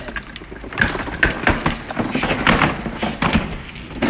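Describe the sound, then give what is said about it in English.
Busy clattering and knocking as about 50 items are pushed through the tiny door of a storage unit, with irregular thuds and rattles. No one speaks. “They build this tiny ass door. I'm trying to fit like 50 things through it.”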